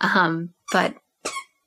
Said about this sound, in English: i'm sorry that is my dog playing with her toy she's trying to get my attention she got it